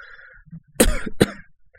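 Two sharp, loud coughs in quick succession, close by, the first heavier and the second a shorter burst, with nothing else around them.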